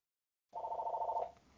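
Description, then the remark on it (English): A telephone rings once, a bright trilling burst lasting under a second before cutting off and fading into quiet room noise, with no one talking. “No, that's just the phone tell, in my background.”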